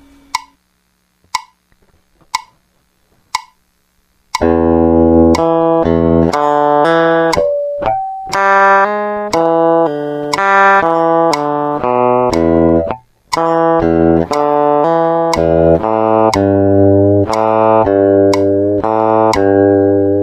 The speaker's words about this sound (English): So next we're going to do example number one using the metronome set at 60, but one click will equal an eighth note, so we'll be doubling the speed.